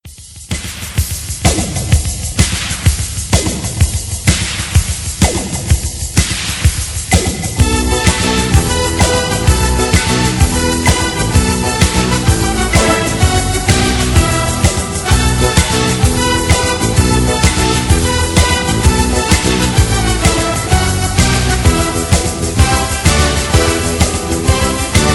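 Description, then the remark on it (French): A closing song plays loud, opening with a sparse rhythmic intro before a full band with a steady driving beat kicks in and carries on without pause. “On se quitte avec une musique qui m'a paru, disons, appropriée.”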